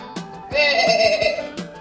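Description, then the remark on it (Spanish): A single sheep lets out one loud, wavering bleat lasting about a second, with faint clicks and rustling around it. “Para allá voy, oveja”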